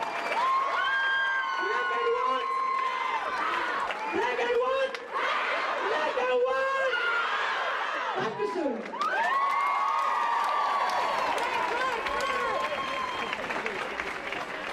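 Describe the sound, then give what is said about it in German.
A large crowd applauds steadily for the whole stretch at a stage performance in the Schlachthof in Munich, with loud cheers and whoops rising above the dense clapping. The sound stays full throughout. “Einen kleinen Applaus!”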